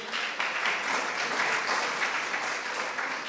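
Steady audience applause: dense, continuous clapping from many hands, bright and fairly loud throughout, with no talking over it.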